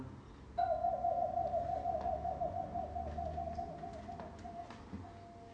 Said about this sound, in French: Il fait nuit. Tout dort. Seul un hibou noir, ulule dans le soir.